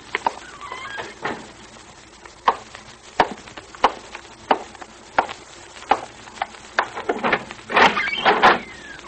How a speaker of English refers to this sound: He's trying to unlock the door.